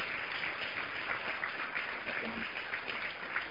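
audience applause

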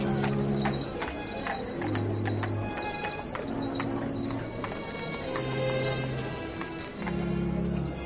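horse hooves clip-clopping

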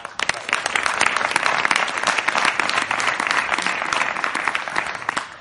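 audience applause

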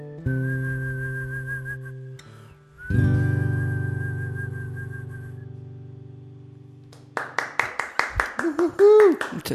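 hand clapping

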